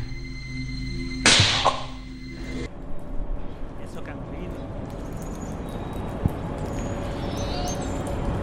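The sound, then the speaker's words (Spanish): One sharp, loud slap across the face lands early on in a TV drama scene, with a brief ringing tail, then the scene settles into a steady murmur of background noise with faint scattered sounds. “Eso que han oído es una bofetada.”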